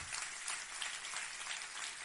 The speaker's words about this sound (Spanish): Ay, dale un aplauso al Señor para resistir la prueba. Aleluya. Amén.